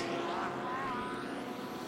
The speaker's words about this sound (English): Through the final corner for the number 79, Daniel Juncadella. WeatherTech Racing Mercedes scraping the left front edge of the splitter on the ground with the Porsche in behind.